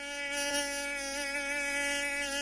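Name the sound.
mosquito buzzing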